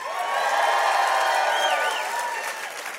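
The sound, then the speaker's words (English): A large church audience of married people cheers and claps loudly for a few seconds, with scattered whoops and shouts rising above the steady wash of applause before it begins to ease off. “Married people, make some noise.”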